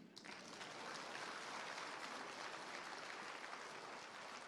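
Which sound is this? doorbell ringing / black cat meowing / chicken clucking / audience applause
audience applause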